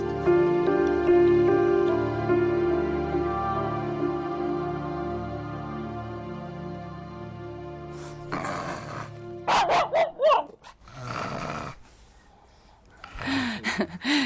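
A steady, droning musical tone fades out, then several sharp barks and yips burst out in an irregular flurry over the last few seconds.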